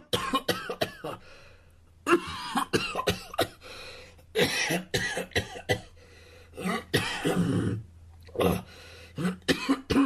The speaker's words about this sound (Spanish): Bueno, si ustedes están acostumbrados eh, a ese tipo de toses, es momento que uno, o dejen de fumar, basta ya, eh, o dos, piensen en salirse de si viven en ciudades grandes y contaminadas como esta que vivimos nosotros